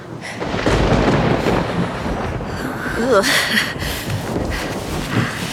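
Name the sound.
thunder clap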